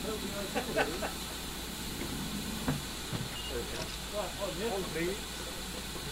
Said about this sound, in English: Locomotive's now taking on water before reattaching to the train so that it can take us down to Lydney.